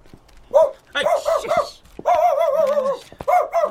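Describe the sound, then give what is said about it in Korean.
An unleashed dog barks loudly in quick, uneven bursts, breaks into a longer drawn-out whining howl, then finishes with two more sharp barks. No one speaks. “나 저런 개를 줄도 안 매고.”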